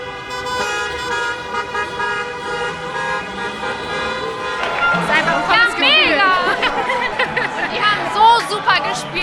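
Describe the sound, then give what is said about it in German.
Thousands of Italian football fans in Hesse, Germany, celebrating Italy's European Championship title into the early morning hours: car horns blare in sustained overlapping toots while a crowd chatters and cheers; about halfway through, shouting voices grow louder and rise in pitch over the continuous honking. “Bis in die frühen Morgenstunden haben tausende italienische Fußballfans gefeiert. Und das hat sich dann so angehört.”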